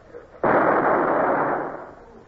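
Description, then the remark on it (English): A single heavy ship's deck gun, fired by jerking the lanyard while aimed at the bows of an approaching rowing boat, goes off with a sudden, loud blast, its broad roar holding for about a second before rolling off into a fading rumble. No voices are heard. “I stared through the gun sight straight at its bows, jerked the lanyard, and fired.”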